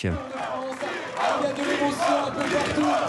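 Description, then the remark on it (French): A large crowd chants the first name of a climber from Franche-Comté as he receives the combativity prize on his last Tour, in loud, repeated rhythmic bursts, many voices rising and falling together in a steady cheer with no one speaking over it. “Et lorsqu'il a reçu le prix de la combativité, son prénom a été scandé.”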